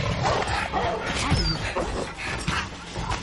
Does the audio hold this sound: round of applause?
no